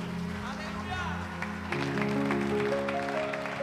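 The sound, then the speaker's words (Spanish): A church audience breaks into sustained applause for the Lord, the clapping swelling louder about halfway through, while voices and sustained musical tones carry on underneath. “Dele un aplauso fuerte al Señor.”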